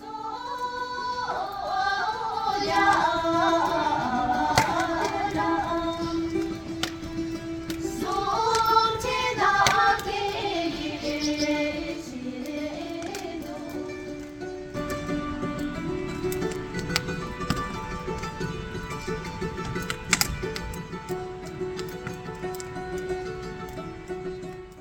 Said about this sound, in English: So, what you just heard is another beautiful sound from Bhutan that is the Bumtang dance. It's a dance from central Bhutan. It originated from the Bumtang Valley and is performed in respect of the land and to the great Saint Guru Rinpoche.